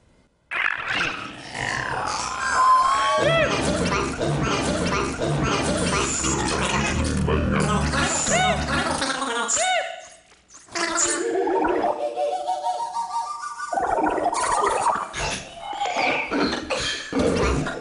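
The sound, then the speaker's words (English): A loud, continuous electronic soundtrack made on a computer from a recorded singer's voice, digitally warped into gargling, growling, sliding tones, briefly dropping out near the middle before resuming with rising and falling pitch sweeps. “recorded uh, an, an, awesome singer, and I took the sound of his voice in, in my computer and I warped it in countless ways to come up with the soundtrack that you're about to hear.”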